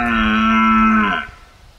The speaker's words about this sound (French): C'était un cerf.